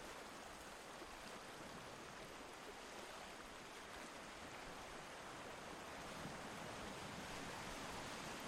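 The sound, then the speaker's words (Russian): Calm blue ocean waves under a summer sky wash steadily onto sand, spreading foam, in a continuous soft, hissing roar, with no distinct breaks between surges. Nobody speaks. “Он расстилает резьбу пены на морском песке, прежде чем мягко удалиться.”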